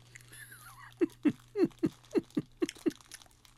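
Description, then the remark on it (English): Crunchy chewing of a hard, chalky mint tablet, about eight quick bites in a steady rhythm, with a faint low hum in the background and no talking. “I know people don't like food noises, but I'm just being exaggerating.”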